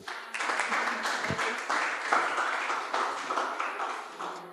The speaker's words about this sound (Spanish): Aplausos aplauso a Jesucristo.